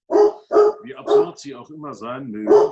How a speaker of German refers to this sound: Das ist mein Hund